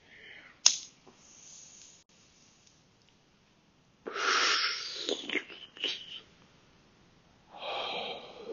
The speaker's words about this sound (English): All right, you guys are about to hear my first hit of the day.